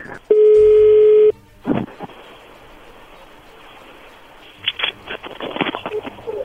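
A telephone call being dialed: one steady electronic ring tone lasting about a second, followed by hissy line noise and soft crackling bursts, as if heard through the handset.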